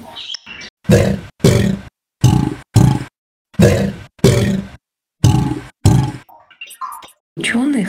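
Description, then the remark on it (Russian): A Chinese alligator in a helium-filled cage, recorded by scientists studying how the timbre of its sounds changes, gives a series of about ten loud, rough bellowing grunts in an uneven rhythm with short silent gaps, then a few fainter, higher squeaky sounds. “А ученые посадили китайского аллигатора в клетку, наполненную гелем, и регистрировали, как поменяется тембр издаваемых им звуков.”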